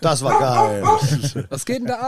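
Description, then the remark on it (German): A dog barks and yips in a quick run of loud barks, with people laughing and talking over and right after it. “Kackt da jemand vor unsere Tür, Polly?”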